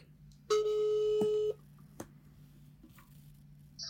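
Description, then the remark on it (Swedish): A single electronic ringback tone sounds for about a second, a steady bright pulse with stacked harmonics, followed by quiet line hum and a faint click, as a phone call is placed to a friend who works at a telecom operator. “så ringer vi upp vår gemensamma vän Moa som faktiskt jobbar eh, hos en teleoperatör”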